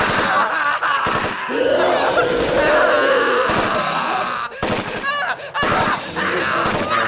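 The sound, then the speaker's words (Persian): Sharp gunshots crack repeatedly from the other side of a rooftop through a loud, chaotic scene while voices scream, moan and wail, with brief pauses between bursts. “سمت دیگه پشت بوم صدای شلیک می اومد تقریبا رسیده بودم به پرتگاه پشت بوم”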